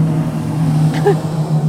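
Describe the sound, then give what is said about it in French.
A motorboat engine drones steadily on the river, a low, continuous hum holding at a fairly constant loudness throughout, with no clear rise or fall as it goes by. “Aujourd'hui, on a même des bateaux sur la saute, ce qui n'arrive jamais.”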